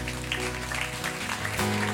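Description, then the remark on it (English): Congregation applause for Jesus, a steady dense patter of many hands clapping, continuing over sustained music chords, with the clapping and music swelling slightly louder near the end. “Can we give Jesus a round of applause in this place?”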